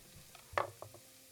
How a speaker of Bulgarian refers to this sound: След него си взимам две скилитки от следващия зеленчук и нарязвам наситно. Добавям и него в тигана и запържвам до златисто.